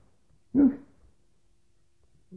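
A single short dog bark rings out, followed by about two seconds of near silence before another faint sound begins at the very end.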